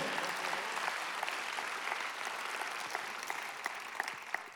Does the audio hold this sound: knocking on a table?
no